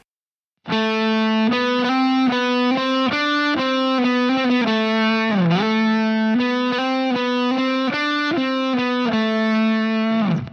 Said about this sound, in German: Das heißt, die Melodie beginnt jetzt auf dem A denn das ist der Quartabstand zu E. So klingt die Melodie in Quarten.